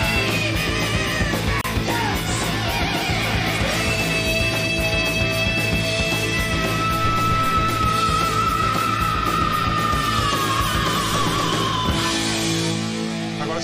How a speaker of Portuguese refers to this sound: você reparar direitinho, mesmo cantando a palavra screaming, que é gritar, ele não canta gritando. Se a gente estivesse perto dele, a gente ia estar tá percebendo que ele está falando, é, cantando baixo, inclusive.